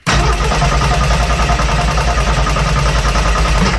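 A car engine cranks over and over in a loud, steady, rhythmic chug for several seconds without catching. There are no voices.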